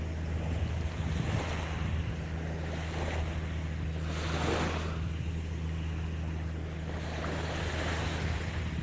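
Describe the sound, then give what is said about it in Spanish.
Mediterranean sea waves wash steadily onto a beach with a continuous rushing surf, swelling into a louder surge midway. A low, constant hum and some wind noise sit underneath, and no one speaks. “Porque estoy aquí viendo la naturaleza, viendo ese mar, que para alguno es el mar de todos los veranos.”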